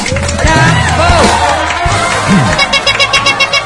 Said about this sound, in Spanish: Bravísimo, un aplauso fuerte, por favor, para ellas.